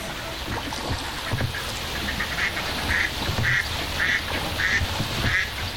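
Ducks on a lagoon quack in a steady series of short, evenly spaced calls, growing regular toward the end, over a constant wash of outdoor ambience with soft low rumbles.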